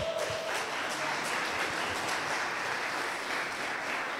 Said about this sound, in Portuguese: Vamos aplaudir ao Senhor bem alto?